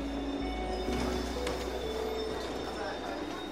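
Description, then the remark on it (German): An S-Bahn commuter train at a station, with a steady low rumble, faint metallic squeals and thin high tones over a dense, busy background hum, continuous. “Er holt mich von der S-Bahn ab.”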